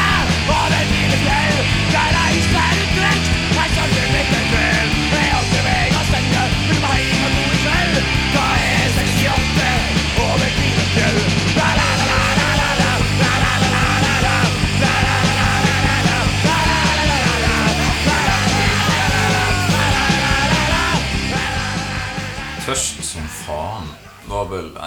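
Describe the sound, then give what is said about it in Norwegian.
A loud, raw punk rock drinking song with shouted, yelled vocals over dense, driving guitars and drums, playing continuously before fading out in the last few seconds. “Der hører du òg det at jeg har hørt veldig masse på … og … og sånt i den perioden der.”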